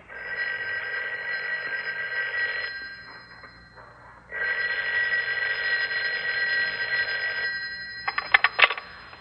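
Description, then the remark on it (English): A telephone rings in two long, loud bursts of shrill electric bell tone separated by a short pause, followed by a few quick clicking rattles at the end. No one speaks. “I don't care how many more times you call. You can keep it up all night long.”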